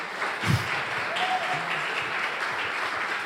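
Audience applause fills the whole stretch: a steady, dense wash of many hands clapping at an even level, with a brief louder burst near the start and no one speaking over it.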